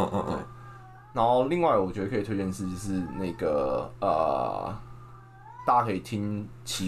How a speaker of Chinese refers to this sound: 不好意思，我们家的猫真的太吵了，好难听的叫声。